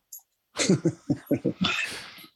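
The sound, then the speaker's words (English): Dogs make noise in the room: a quick run of five or six short, sharp yips in a steady rhythm, then a rough, breathy huff or growl, loud and with no talking. “Dogs never quiet, understand.”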